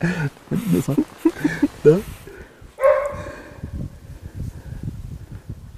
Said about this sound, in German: Na, und der, der, Hund hat eine sehr feine Nase. Ja. Da kann der Pferde immer noch folgen. Das ist, das ist auch der gleiche Hund von vorhin.